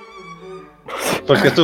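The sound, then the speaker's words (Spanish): A loud sneeze bursts out after a steady tonal hum, followed by a second sharp sneeze-like burst, both harsh and noisy. “Jesús.”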